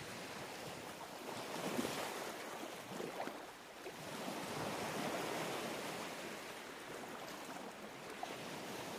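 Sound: ocean waves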